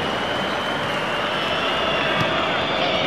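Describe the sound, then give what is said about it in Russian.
Zenit football fans in a large stadium whistle loudly and steadily during a match, a sustained shrill tone riding over a dense roar of fans for the whole stretch, with no break or lull. “посвистывают так футболисты, о, не футболисты, конечно, игроки, э, игроки, болельщики «Зенита» посвистывают.”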